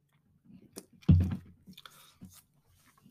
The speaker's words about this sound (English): So let me take another sip here as well.